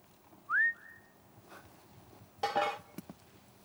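A single loud, rising whistle from a person, fading into a softer held note, followed by a brief clattering noise and a couple of sharp clicks.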